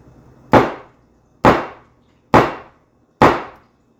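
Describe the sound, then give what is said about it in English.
A hammer strikes a nail four times at a steady, unhurried pace, each blow a sharp, loud metallic knock that quickly fades, with quiet gaps between and no voices. “As we focus on the sounds of Lent during our devotional times, we're going to be focusing on today the sounds of a nail hitting a hammer.”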